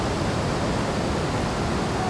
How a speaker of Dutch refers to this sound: Het water komt hier van alle kanten aangestroomd. En in een soort duivels diabolisch gat valt het samen. Dit is niet de eerste waterval die ik zie.